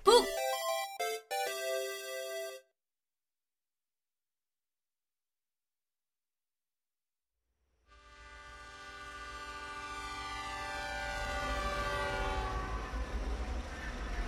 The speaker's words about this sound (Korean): 다시 스위스 기차 안이다. 나의 다음 목적지는 취리이다.